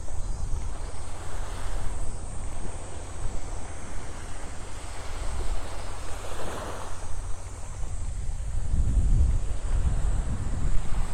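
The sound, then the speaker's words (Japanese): Steady sea wind in the quiet morning rumbles and buffets the microphone, with low gusty thumps that swell toward the end over a soft wash of surf. No one speaks. “ちょっと海風で海風がマイクに入ってしまうかもしれないですが。”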